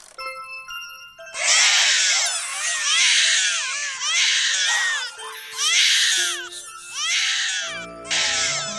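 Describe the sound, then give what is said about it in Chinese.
A loud, eerie wailing cry in a foggy forest repeats in about six long sobbing bursts, each with wavering, rising and falling pitch, over a faint steady tonal hum. No one speaks. “雾蒙蒙的森林里，突然传出了一个可怕的哭声。”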